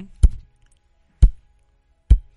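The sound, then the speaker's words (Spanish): Three sharp, imitated movie-style punch hits land about a second apart, each a loud smack with a short thumping tail, with quiet between them and no talking. “¿y te diste cuenta que los golpes suenan muy raro?”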